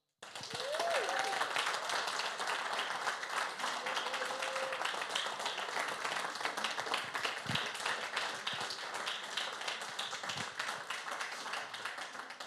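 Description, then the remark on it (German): Sustained crowd applause for three newly appointed team leaders, with dense, rapid clapping that stays loud and steady for about twelve seconds, with a few brief cheers or whistles rising early on. “Und ich äh, bitte euch, dass ihr jetzt einfach mal schon mal für diese drei Personen laut äh, applaudiert und klatscht.”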